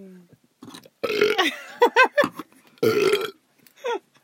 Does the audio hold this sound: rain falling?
no